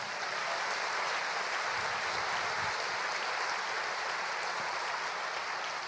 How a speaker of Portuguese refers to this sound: O nome de Jesus, a este nome demos agora o nosso aplauso e a nossa honra.